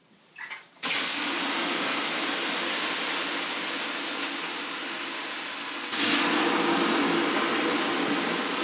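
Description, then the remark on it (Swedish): Water splashed onto hot sauna stones bursts into a loud, steady steam hiss that holds for several seconds, then surges again with a second splash. No one speaks. “Ska men, vi pröva att kasta på? Ja, men det ska, jag måste hämta lite vatten bara.”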